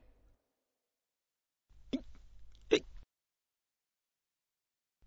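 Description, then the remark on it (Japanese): Two sharp hiccups about a second apart, the second louder, clear against a low background hum, with no talking; a man hiccuping at his desk in an office at work. “その後もしゃっくりは出続けるので、僕はいたたまれなくなり、カバンに原稿を詰めて会社を出た。”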